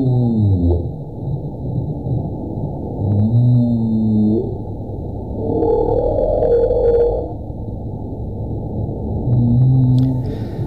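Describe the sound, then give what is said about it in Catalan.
Humpback whale song, used to attract mates during the breeding season and to communicate with others of its species, of low, drawn-out groans and gliding moans with deep grunts underneath, repeating in slow phrases against a faint underwater hiss. “El seu cant és ple de grunts i grolls i s'utilitza per atreure les parelles durant l'època de reproducció”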